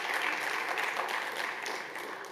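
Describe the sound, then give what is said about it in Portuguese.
Sustained audience applause, a dense crackle of many hands clapping at steady loudness, tapering slightly toward the end with no voices over it. “Eu vou só concluir eh, citando, citando Francisco Lucas Pires, que provavelmente mereceria muitas palmas, seguramente.”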